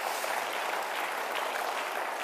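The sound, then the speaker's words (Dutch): An audience in the Goede Herderkerk church applauds the people who set up the chairs, a steady, dense wash of many hands clapping at an even level for a couple of seconds with no voices over it. “Applaus voor de mensen die dat gedaan hebben.”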